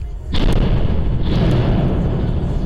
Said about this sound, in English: That's the sound of a truck seemingly with an overheight load scraping the top of the George Massey Tunnel around 8:40 Wednesday night. Sparks and dust and then the cu- truck hit its brakes.